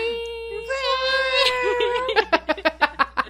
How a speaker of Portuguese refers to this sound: Ó as buzinas, ó as buzinas. Gente, as buzinas estão aqui do lado da minha janela.